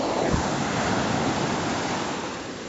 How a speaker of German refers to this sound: bin ziemlich sicher, dass ihr die Wellen hört